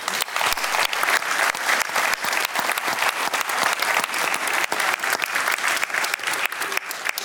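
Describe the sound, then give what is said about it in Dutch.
Sustained audience applause, a dense steady wash of many hands clapping at even loudness for several seconds, with a few sharper individual claps standing out and no talking. “Dus daar wil ik allereerst nog even een applaus voor.”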